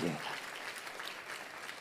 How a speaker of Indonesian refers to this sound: Tepuk tangannya pula yang paling meriah buat Tuhan.